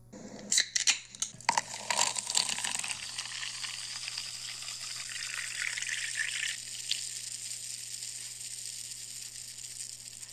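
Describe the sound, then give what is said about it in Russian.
Coca-Cola is poured from a can straight into a frying pan during cooking: a few sharp clicks and splashes, then a loud, steady fizzing hiss that eases into a softer, continuous sizzle. No one speaks. “Вылейте напиток из баночки прямо в сковороду.”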